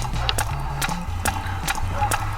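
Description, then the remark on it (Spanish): Steady video-game footsteps walking at an even pace, about six sharp clopping steps, heard over a low, shifting bass tone in the background. “bueno, nos dice que pulsemos enter para comenzar el juego, así que eso voy a hacer y acá vamos caminando”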